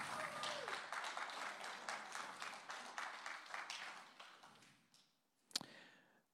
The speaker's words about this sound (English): Are they good? Give them a clap.